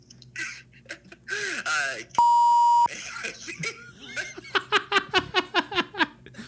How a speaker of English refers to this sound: We're gonna have to beep that out.